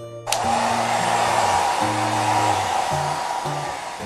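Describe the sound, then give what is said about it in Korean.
A hair dryer clicks on after a brief pause and blows with a loud, steady, rushing whoosh as hair is dried after a shower while head-banging, with low musical tones shifting faintly underneath. “헤드뱅잉을 해가며 머리를 말렸습니다.”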